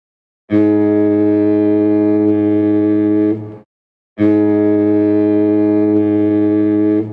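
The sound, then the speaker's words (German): Two long, loud foghorn blasts, each lasting about three seconds with a short pause between, deep and droning with rich steady harmonics and no voices. “Es war ein Nebelhorn.”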